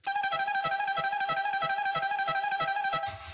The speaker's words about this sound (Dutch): De toeter kan van stal.